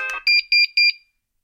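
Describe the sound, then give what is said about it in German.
A device gives a rapid series of high, clean electronic beeps as an acoustic signal after its top-right button is pressed, about six in quick pulsed pairs, loud, then stops abruptly into silence. “Er macht auch ein akustisches Signal.”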